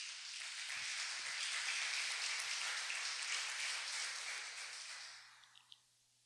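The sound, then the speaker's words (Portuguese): A church audience bursts into sustained applause for the Lord during a sermon, many hands clapping together in a dense wash that holds steady for several seconds, then fades out with a few last scattered claps. “Você pode aplaudir o Senhor por isso?”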